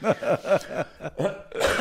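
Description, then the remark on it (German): A short series of harsh, bursty coughs, about four or five in quick succession, each with a breathy, raspy edge and no talking. “ich habe jetzt gehustet, sorry.”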